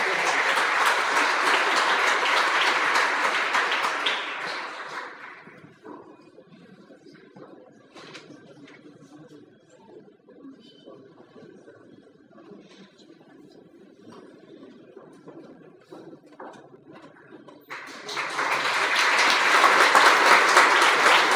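Loud, dense audience applause in a concert hall fills the first five seconds, fades into a quieter stretch of low murmur and scattered small noises, then a second burst of clapping surges back for the last few seconds.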